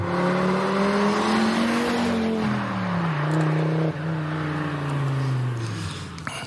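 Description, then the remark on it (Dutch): A Donkervoort sports car engine roars loudly and steadily, its pitch climbing then dropping in steps as gears change, a throaty growl with no talking over it. “Dat is toch, toch het geluid. Ik heb nog een stukje.”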